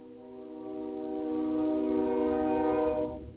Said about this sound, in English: It's a very slow train. And apparently uh, the arms on the tracks aren't working right, so I guess he thought he'd honk his horn incessantly or whatever you call that thing to make sure that nobody was trying to rush home